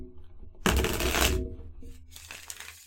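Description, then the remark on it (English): A deck of cards being shuffled, a dense crackling riffle burst lasting under a second, followed by softer rustling and a lighter second flurry of card noise. “I guess I have to shuffle them first anyway.”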